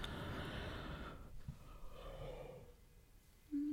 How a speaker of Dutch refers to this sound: Zo, ik moet gewoon gapen.